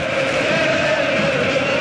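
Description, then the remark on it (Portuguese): A large crowd of Wales fans in the stadium in Lyon, at a match between Wales and Portugal, sings together in a sustained, steady chant, loud and continuous with a broad roar filling the background. No individual voices stand out from the mass of sound. “42 e meio primeiro tempo, canto da torcida de Gales, contagiando o estádio em Lyon.”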